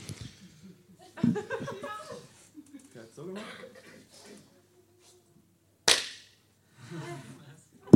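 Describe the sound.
A hand scrapes and rubs against a shoe sole in a few rough, hissing strokes, then one sharp, loud hand clap rings out, with some speaking around it, as a blessing gesture is reenacted.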